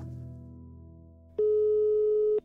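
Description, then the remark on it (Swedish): A single steady ringback tone, the ringing heard when placing an outgoing phone call, here a call to the chairman of the Swedish Carnivore Association (Svenska rovdjursföreningen), sounds clearly for about a second after a faint low hum, then cuts off. “Därför ringer jag”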